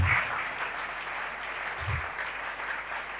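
A crowd at a Christian worship gathering claps steadily and loudly to acclaim the name of Jesus, a dense wash of applause filling the space for several seconds, with a few low thumps and faint cheering voices mixed in.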